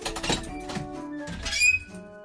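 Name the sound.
door creaking open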